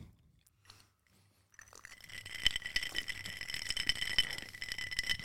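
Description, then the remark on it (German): Ice cubes rattle and clink continuously, a bright, busy jangle that starts softly after a brief quiet pause and grows louder, with sharp crackling clicks throughout. No one speaks. “wie findet ihr das, wenn hier so Eiswürfel in eurem Ohr, in eurem Auto, wo auch immer ihr gerade seid, auf dem Weg zur Arbeit, bei der Arbeit, Ste beim Stereo, Schlafen.”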